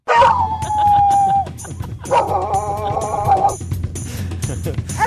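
A recording of dogs barking played on Radio Norge's Morgenklubben: two loud, drawn-out cries with a short gap between them, set over a steady rhythmic ticking beat, with no one talking.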